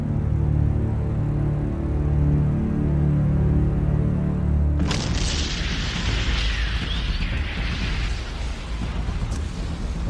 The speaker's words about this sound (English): So I think there was just an explosion. Uh, yep.